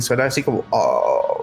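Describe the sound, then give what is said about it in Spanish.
A brief spoken phrase gives way to a person vocally imitating the sound a moved corpse makes as leftover air passes through its vocal cords: a sustained, droning voiced moan, steady for nearly a second. “Es porque queda aire y queda. Eh, pasa por las cuerdas vocales y,”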